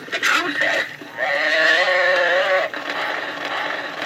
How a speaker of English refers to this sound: You would pull, pull a zip string, yeah, and then it would turn, and wherever your arrow was, it would say the, the cow, whatever the animal is, would say the cow makes this noise, and it would make the noise.